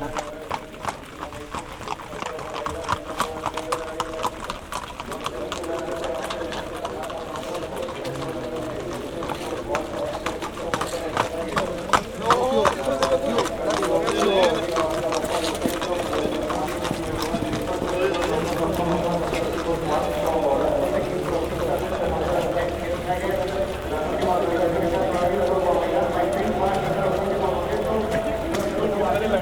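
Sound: horse hooves clip-clopping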